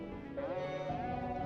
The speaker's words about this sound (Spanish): eso... eso fue mi teléfono, mala mía.